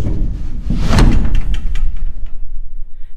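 A heavy riding arena door rumbles open along its sliding track, with a clattering thud near the start and a low scraping roll that continues; fairly loud, with no one speaking.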